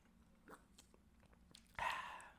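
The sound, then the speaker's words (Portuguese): Chewing and swallowing noises: a few soft, wet mouth clicks, then a louder crunching bite near the end that fades out. No one speaks. “Tem muitos sons de, de engolir.”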